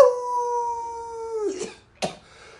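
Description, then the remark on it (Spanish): A person howls like a wolf, holding one long, steady note for about a second and a half, followed by a couple of short, breathy yelping bursts. “Luego aquí no vamos a aullar en la luna llena y esas cosas.”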